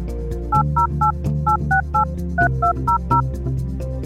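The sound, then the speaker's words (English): A quick series of about ten touch-tone dialing beeps, each a short two-note electronic chirp at a steady pace with a brief pause midway, over a soft low musical bed. “Those touch tones remind me to tell you again”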